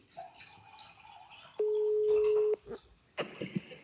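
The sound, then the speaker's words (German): A telephone call ringing out to a guest being called in: one steady, flat ringback tone lasting about a second, loud and clear, framed by faint clicks and line noise with no one speaking. “Ich habe hier schon mal auf dem Telefon jemanden aufgerufen, den wir jetzt mal anrufen.”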